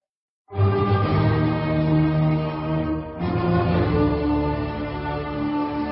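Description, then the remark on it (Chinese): A full orchestra, the Berlin Philharmonic conducted by Karajan, plays the opening fate motif of Beethoven's Fate Symphony, bursting in loudly with a forceful opening figure ending on a long held note, then striking again with a second sustained phrase; no one speaks. “伟大的命运交响乐，我们来听听大指挥家卡拉扬啊，率领柏林爱乐交响乐团，他是怎么指挥演奏的啊？”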